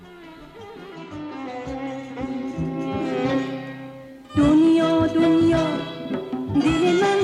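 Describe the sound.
A Persian pop song plays from a taxi's loudspeaker, with a woman singing over a full, steady instrumental backing that swells noticeably louder about halfway through and continues without pause.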